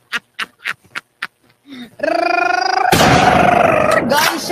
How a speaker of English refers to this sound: Gunshot